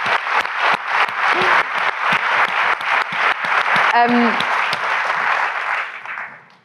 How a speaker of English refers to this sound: Yeah, um, yes. Give her a round of applause. Yeah, hell's yeah.